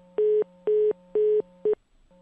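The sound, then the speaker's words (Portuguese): Telephone dialing tones: four loud, evenly spaced electronic beeps, the last one shorter, over a steady low line hum, with a brief pause before the tone resumes. No one speaks. “Quem que você tá chamando, Tigrão?”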